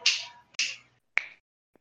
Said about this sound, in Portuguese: Assim, ó Estala os dedos, tipo, tu tava, tu tava tentando lembrar e tu não sei o que é aí.